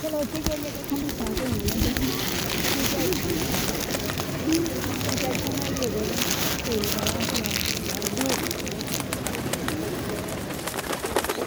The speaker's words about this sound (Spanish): Llegaron muchas palomas a mí tan pronto regué el paquete. Realmente estaban hambrientas. Me puse maíz en la mano se me subió una.